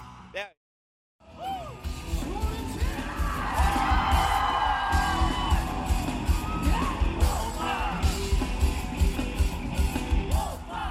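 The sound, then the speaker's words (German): A dense festival crowd cheers and yells loudly for rock bands, with whoops and shouts rising over a constant roar of many voices, after a brief moment of silence at the start. “… tanzt, singt und jubelt den Rockbands zu.”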